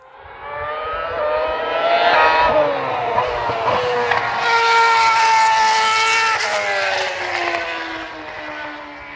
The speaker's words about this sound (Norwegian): Og dette her, det er ikke vepsten som stakk Emil Iversen i vår aller første episode. Det var lyden av fart. Dette var lyden av eh, Formel 1.